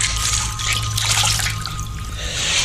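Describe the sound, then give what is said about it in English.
A steady trickling water sound effect from the original film Jaws runs continuously, a bright, splashy hiss over a low rumbling hum, fairly loud, with no voices. “You know that water sound bothered me.”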